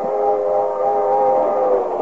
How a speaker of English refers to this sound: Across the countryside, a 100 miles from Wistful Vista, rolls the crack streamliner this afternoon.